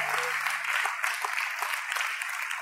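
A crowd applauds steadily, a dense wash of many hands clapping at once, sustained and fairly loud throughout with a faint low hum fading out early on.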